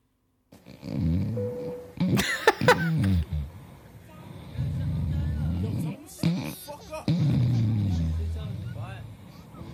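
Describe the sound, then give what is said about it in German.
A man snores loudly on an airplane, long rumbling breaths repeating in slow rhythm, broken by a few short sharp noises in between. “so, auf dem Skit in dem Album hörst du dann, wie sich es ungefähr angehört haben muss mit dem Schnarchen, weil da gibt es einen Skit, wo er im Flugzeug sitzt.”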